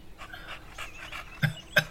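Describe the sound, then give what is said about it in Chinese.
A beagle named Bike (比克) lets out soft, high whimpers and whines, then two sharp barks near the end, with panting breaths in between and no one talking. “小子，你有种再叫两声我听听。”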